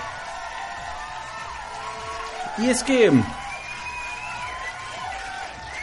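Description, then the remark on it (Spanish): A burst of crowd cheering and applause with a few whoops rising in the middle, fairly loud and steady throughout, while a voice speaks briefly over it. “Un aplauso.”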